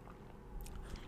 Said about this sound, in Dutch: Ehm, het derde punt. Ik neem weer een slokje water.